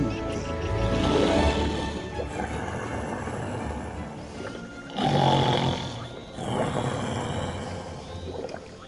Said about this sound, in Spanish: A los pocos segundos, el felino roncaba ruidosamente.